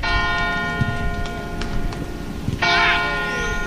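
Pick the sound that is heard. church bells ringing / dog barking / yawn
church bells ringing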